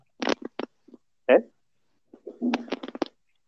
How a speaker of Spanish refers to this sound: Se escuchan como pedos ahí a la verga.